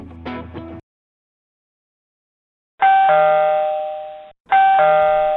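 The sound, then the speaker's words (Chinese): An electric doorbell chimes twice in a row, each ring a bright two-tone ding-dong that hangs and slowly fades, following a short burst of sound and a couple of seconds of silence. “一听到电铃声，姐姐一声惊叫”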